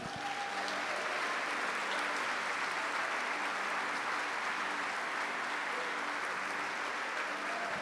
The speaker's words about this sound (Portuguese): Irmãos, dá um aplauso a esse Deus maravilhoso.